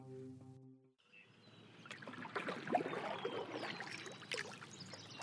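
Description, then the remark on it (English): A short musical tone fades out, then a canoe paddle dips and pulls through the calm water of a quiet lake with soft splashes and trickling drips, while faint birdsong chirps. “As many of you have probably already figured out, the sound you're hearing is me paddling a canoe on a quiet lake.”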